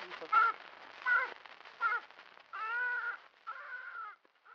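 A crow caws several times: three short, harsh calls in quick succession, then two longer, drawn-out caws, loud and clear with no other sounds around them.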